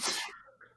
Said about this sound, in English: and you are just having a sneeze party